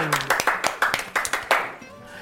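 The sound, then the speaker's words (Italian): An audience breaks into applause for a correct answer in a quiz, a burst of quick, sharp claps coming in a fairly steady rhythm at moderate loudness, then thinning out and fading near the end. “Un applausone!”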